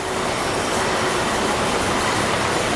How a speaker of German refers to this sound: Sie filmen, wie die Bierflaschen über die Bänder der Abfüllanlage kurven.